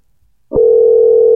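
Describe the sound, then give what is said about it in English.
An outgoing phone call ringing tone begins after a short stretch of near-silence, a steady, fairly loud electronic hum that holds unbroken to the end, with no voices present. “It's ringing, and that's the first step.”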